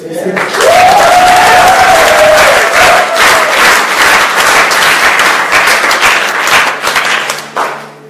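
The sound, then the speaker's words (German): A large audience at a church service applauds for Singen, loudly and steadily for several seconds, with dense clapping mixed with cheers and a few whoops, tapering off near the end. “Und deswegen ganz einen Applaus für Singen, okay?”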